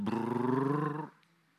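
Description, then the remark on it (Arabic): A voice imitates a running motor with a loud, steady, buzzing roar that holds for about a second, rising slightly in pitch, then cuts off into near silence. “الجهاز بيشتغل الموتور”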